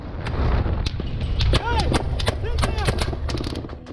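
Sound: gunfire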